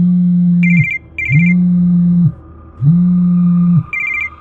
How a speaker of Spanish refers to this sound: Mi teléfono sonó a eso de las 3 de la tarde.